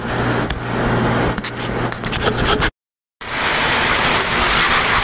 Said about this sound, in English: But right now, according to the radio, we're about an hour and a half from the worst part of the storm. And then it's going to stay for like four hours. And it's windy and there's a lot of rain, but so far not bad.